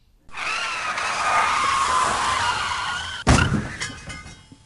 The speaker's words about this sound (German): Ein kurzer, gefährlicher Blick auf das Smartphone, während sich der Verkehr dahinschlängelt, oder Müdigkeit von der langen Autofahrt. Schon quietschen Autoreifen und es knallt.